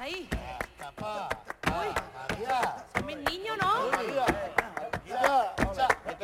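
Crisp, sharp flamenco handclaps (palmas) beat out a steady, driving tangos rhythm, sounding loudly over an ornamented sung voice that wavers and bends through long melismatic phrases.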